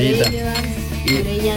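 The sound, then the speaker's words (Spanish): Glasses clink together in a wine toast, a few bright taps over a sustained ringing hum, with no talking. “Maricruz, brindamos contigo y por ti.”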